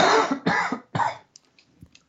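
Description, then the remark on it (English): Three harsh, closely spaced coughs burst out loud, followed by faint wheezy breaths and small throat sounds as the fit subsides. “Yeah, I'm about to have a cough storm.”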